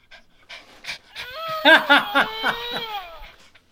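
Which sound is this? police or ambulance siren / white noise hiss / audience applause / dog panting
dog panting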